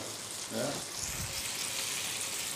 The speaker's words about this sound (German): Einfach also dann die Kräuter in die Pfanne auf genau. den Rücken drauf und in das Butterölgemisch. Ja. Butterölgemisch.